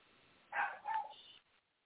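A small female dog barks at something down below: two quick, high-pitched barks, the second trailing off into a brief whine, somewhat muffled, with no one talking.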